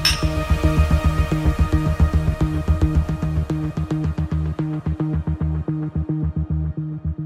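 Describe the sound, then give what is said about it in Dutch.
Glasses clink over and over in a quick, steady rhythm in a toast, bright metallic taps sitting over a constant low hum, moderately loud, with no one talking. “Proost jongens.”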